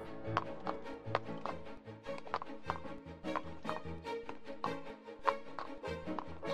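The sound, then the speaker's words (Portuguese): The hooves of a mare bolting without a saddle gallop in a quick, steady rhythm, a continuous run of sharp thuds with no voices over them. “Conseguiu livrar-se da cela, mas a égua não respondeu mais às suas ordens, saindo em disparada.”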